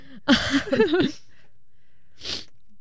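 A loud burst of nasal, voiced sneezing or snorting is followed, after a short pause, by a single quick sniff. No one speaks.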